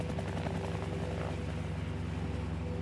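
A police helicopter searching for a missing woman drones steadily with a low, rhythmic rotor thump and a constant engine hum. It is fairly loud and unchanging, as if hovering or passing overhead. No voices.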